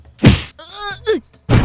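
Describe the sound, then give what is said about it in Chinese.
A heavy, dull punch from Fogg's right fist lands with a thwack on Fix's nose, followed by Fix's short pained cry that rises and drops in pitch, then a second solid blow at the end. “当他正想扑向费克的时候，霍格却已经早一步，以右手挥出一拳，结结实实的对准费克的鼻子打下去。”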